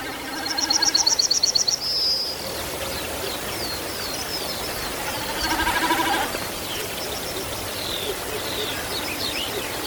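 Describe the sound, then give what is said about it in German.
A diving bird, dropping vertically from a great height of some 50 to 60 metres, drums with its spread outer tail (steering) feathers: a rapid, pulsing, bleat-like tremolo, first clearly and then again more faintly, over steady rushing noise with scattered small bird chirps. “dann lässt sie sich aus großer Höhe senkrecht herabfallen und mit ihren äußeren abgespreizten Schwanzfedern, also den Steuerfedern, erzeugt sie dann dieses Geräusch hier.”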